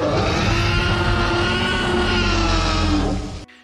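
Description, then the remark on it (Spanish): A person imitates a T-Rex roar with one long, loud, gravelly growl held steady for over three seconds before cutting off sharply. “¿nos puedes hacer una vez más el rugido de T-Rex que nos hiciste al principio?”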